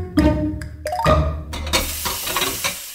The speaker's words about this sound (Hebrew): בזמן שאתם שוטפים כלים, סיימתם עוד פרק בספר.